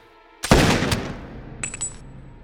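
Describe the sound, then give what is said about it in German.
A single loud gunshot cracks out as a man is shot in the chest while lying wounded in a ruin at dusk, its blast trailing off in a short echoing tail, followed by a brief high metallic ringing. No one speaks. “Der Schuss geht mitten in die Brust des Verletzten, der regungslos liegen bleibt.”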